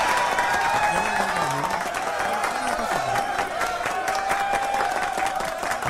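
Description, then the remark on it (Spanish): An applause sound effect played for the winner of a t-shirt giveaway: a dense, steady crackle of many hands clapping, with crowd cheering and voices woven through it, loud and unbroken throughout. “Esos aplausos suenan raros.”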